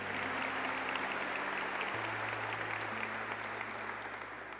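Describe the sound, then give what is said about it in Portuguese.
An audience applauding steadily at a morning church gathering, giving another round of applause for a man being thanked: a dense, continuous wash of clapping at even loudness, with a low sustained tone humming underneath that shifts pitch partway through. “Mais um aplauso para ele, gente.”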